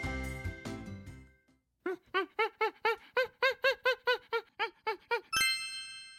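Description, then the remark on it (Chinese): A Formosan rock macaque gives about a dozen short, squeaky, high-pitched calls in a quick steady rhythm, following a brief musical passage and ending as a bright chime rings out. “这是台湾猕猴的叫声。”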